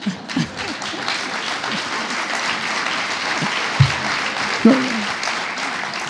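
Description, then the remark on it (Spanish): Steady, dense applause from an audience fills the whole clip, a broad crackling wash of many hands clapping, with a few faint voices and brief louder bursts breaking through. “No, no, no me aplaudan tanto porque confieso que ahora es más difícil.”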